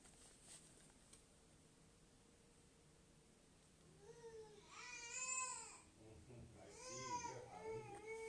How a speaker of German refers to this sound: vielleicht hört ihr irgendwelche Hintergrundgeräusche bei mir. Meine kleine Schwester schreit rum.